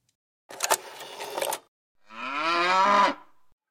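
A cow moos on a farm, a rough breathy bellow followed after a short pause by a longer, drawn-out tonal moo that swells and then fades, with no talking.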